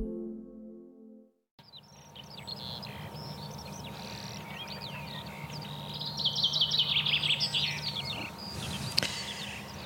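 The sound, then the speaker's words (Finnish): Birds sing and chirp outdoors in the morning sun on the shore embankment of Lake Hyvelä, a field area in Lohja, Finland, over a steady hum of ambient noise, a busy chorus of overlapping calls with one bright, rapid trill standing out louder near the end. “Lintujen aamukonsertti Lohjalla”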